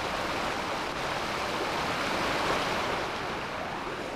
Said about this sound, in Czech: Takhle šumí asi 8-metrový vodopád, odtékající z jednoho z nejvýše položených českých rybníků. On to vlastně není v pravém slova smyslu vodopád, je to jakýsi katarakt, taková široká stoka, kterou odtéká voda přepadající z pohořského rybníka.